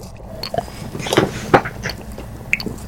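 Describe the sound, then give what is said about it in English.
A big gulp of cranberry grape juice taken right at the microphone, with two wet, throaty swallowing sounds close together, then softer mouth noises and a quiet breath afterward. “Now, t- now take a big gulp right into the mic, right into the mic. I want to hear it go down.”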